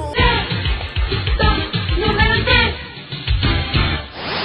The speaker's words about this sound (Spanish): compartimos la bachata, suena así.